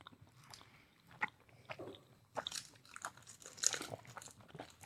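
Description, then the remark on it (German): Biting and crunchy chewing of chocolate bonbons, irregular crackly bursts and wet mouth sounds over about five seconds, with no talking. “Das ist wirklich die Vollendung eines Schokoladenbonbons.”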